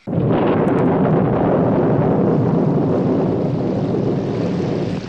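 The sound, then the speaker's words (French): A loud, continuous low rumble rolls on for several seconds, the deep steady roar of thunder from a storm, with no voices present. “on n'entend pas Emmanuel, mais les meuglements des vaches, le bruit de l'orage”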